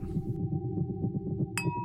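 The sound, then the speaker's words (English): A single bright clink of glasses of rosé wine in a toast near the end, leaving a short ringing tone, heard over a steady low, pulsing rumble in the background. “We clink our glasses of rose.”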